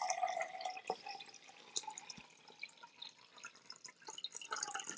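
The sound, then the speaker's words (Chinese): Water pours steadily into a 500 cc glass measuring cup, 450 cc of drinking water being measured out while preparing spiced milk tea, a continuous bright splashing trickle with shifting pitch and small drips throughout, heard on its own without talking. “我们要有一个这个玻璃量杯，好，这个玻璃量杯五百 CC，我们先装四百五十 CC 的水，”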